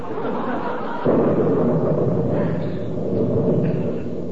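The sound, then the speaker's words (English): A low, rolling thunder rumble swells in about a second in and keeps grumbling steadily over a constant hiss of background noise, with no one speaking. “Did you see that lightning?”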